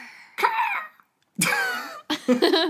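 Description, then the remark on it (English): A person voices three raspy, strained screeches in quick succession, imitating the classic Murder, She Wrote eagle cry used for Native American folklore or the Navajo desert. Each one is loud and harsh, with a short pause between the first two. “I, I was trying to do like the, the, uh, the classic like murder she wrote eagle sound anytime they do something to do with like Native American folklore or the Navajo desert.”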